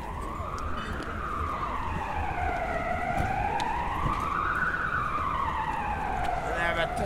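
A siren in Brussels wails continuously, its pitch sweeping slowly up and down in long, smooth cycles over a steady wash of background noise, prominent throughout.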